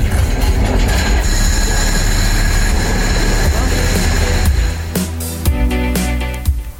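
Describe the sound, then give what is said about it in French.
A heritage train rumbles steadily along the rails in the Anjou countryside of France, loud, with a low mechanical drone and high metallic whine; near the end the rumble drops and sharp clanks and squeals ring out. “Dans ce décor du 19e siècle, très rapidement, le bruit de la mécanique nous attire.”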